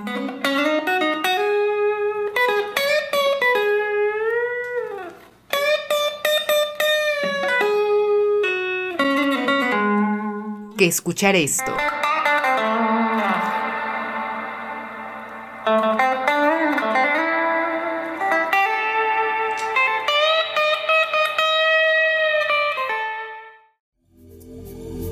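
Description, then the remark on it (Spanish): A bright, buzzy synthesizer plays a sustained melody of gliding tones, loud, with a reverb effect smearing the notes into long reverberant tails. A brief spoken voice is heard near the start. “Y si se preguntan cómo es el reverb, aquí tienen una muestra.”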